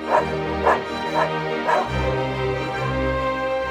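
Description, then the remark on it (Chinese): Nine dogs guarding the door of a tool room bark fiercely, four sharp, loud barks in quick succession over a low rumbling undertone, which carries on steadily once the barking stops. “九只狗依然狂吠，根本不认得品斯是他们的妈妈。”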